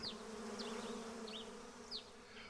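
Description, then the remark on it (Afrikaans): A bee named Arnoldus buzzes with a steady, droning hum as it flies past a cat lying on a sunny lawn on a spring day, while birds chirp in short, scattered calls. No one speaks. “Markie word wakker toe sy haar vriend Arnoldus by hoor verbyvlieg.”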